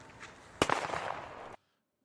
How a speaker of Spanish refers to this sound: Esto no lo entiendo, ¿no? Lo de la explosión, ¿no?